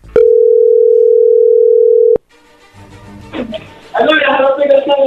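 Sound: telephone dial tone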